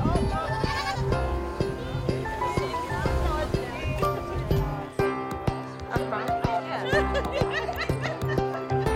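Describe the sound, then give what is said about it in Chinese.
A young goat bleats again and again, thin wavering cries with a quavering pitch, over a steady bed of background voices and what may be light laughter. “我觉得太好玩了，我和那只灰白色的小羊羔成了朋友。”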